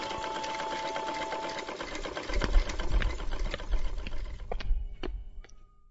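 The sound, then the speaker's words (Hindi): A sewing machine runs steadily with a dense mechanical whir and rapid stitching clatter, then slows toward the end with a few distinct knocks and clicks as it winds down. No one speaks. “हम धाई धाई तुरपाई करी छे आ तू मशीन में सीने चल होते”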